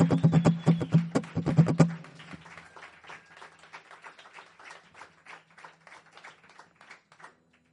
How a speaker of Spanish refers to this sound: Y pido un fuerte aplauso porque quedado como muy solo. Un fuerte aplauso para toda esta peña que va a mencionar.